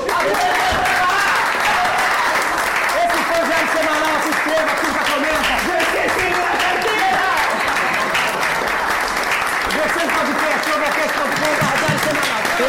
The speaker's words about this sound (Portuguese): Aplausos para o nosso elenco e para quem é da redação,